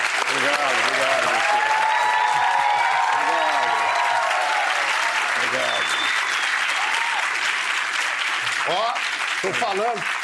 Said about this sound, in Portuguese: Vamos aplaudir Fernando Henrique Cardoso.